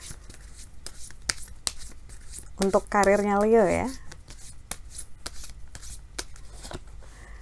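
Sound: shuffling tarot cards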